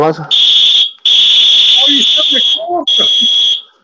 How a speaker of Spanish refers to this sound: Este es el silbato electrónico que